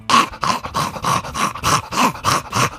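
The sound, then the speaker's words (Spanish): A person imitates the snorting, labored breathing of a brachycephalic dog seen on the street, whose long palate covers the airway opening: about ten rapid, raspy snorts in a steady, wheezy rhythm, fairly loud, with no talking. “Estos perros que van por la calle, os lo voy a hacer el ruido, ¿eh? Así.”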